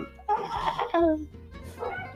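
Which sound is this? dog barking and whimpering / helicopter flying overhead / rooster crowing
dog barking and whimpering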